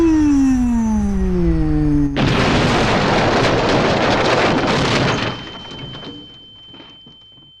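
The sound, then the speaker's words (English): A falling whistle descends for about two seconds, then a loud, roaring explosion bursts out and rumbles for several seconds before fading, leaving a thin, steady high-pitched ringing tone. “A huge explosion happened.”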